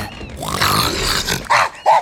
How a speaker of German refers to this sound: Du schnarchst wie ein ganzes Sägewerk. Also. Man könnte meinen, du wolltest den ganzen sieben Giebelwald zerlegen.